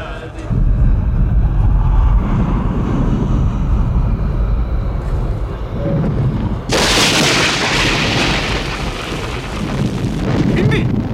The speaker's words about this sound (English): And now, sound designer Ben Burtt takes over. No music, but thunder and lightning.